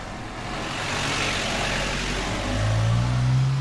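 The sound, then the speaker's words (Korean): A small car speeds away at full speed, its engine revving hard and accelerating steadily, its low rumble rising in pitch toward the end over a broad roar of road noise. No one speaks. “카스 삼촌의 차는 전속력으로 내달렸다.”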